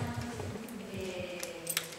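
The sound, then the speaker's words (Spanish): Two keys, the depositor's and the institution's, working the locks of an old rental safe deposit box: a few sharp metallic clicks and scrapes, the last one the loudest, over a steady low hum. “Dos llaves, ¿Por qué tenéis dos llaves?”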